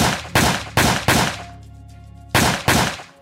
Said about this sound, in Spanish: Un vecino, que dice llamarse Carlos y vive al lado del chalet del crimen, en una tranquila calle de un barrio de clase media de Niterói, coincide con Flor de Lis en que oyó seis disparos.